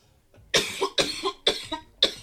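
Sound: coughing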